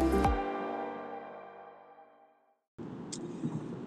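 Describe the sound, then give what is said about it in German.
A ringing musical tone fades into a brief silence, then steady low road rumble from inside a car driving from Mannheim back toward Germering and Landsberg fills the last second or so, even, with no one talking. “Heute gibt es eine Podcast-Folge aus dem Auto bin nämlich gerade auf dem Weg von Mannheim zurück Richtung Heimat Germering Landsberg.”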